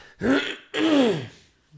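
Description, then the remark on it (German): Someone with a scratchy throat clears it twice in quick succession, two raspy, voiced bursts, followed by a faint short sound and quiet. “will ja nicht genau in das äh, Mikrofon reinräuspern, ne?”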